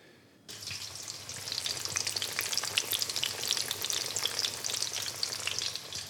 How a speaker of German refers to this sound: Das Schnitzel ist im heißen Öl drin, schwimmt in der Pfanne herum.